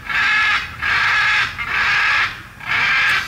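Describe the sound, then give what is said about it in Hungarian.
Four loud, harsh, crow-like caws from an unusual bird repeat in steady succession, each a raspy drawn-out call with short gaps between, clear with no talking, recorded on a phone. “Ilyen én felénk is van, úgy hívják, hogy beteg varjú.”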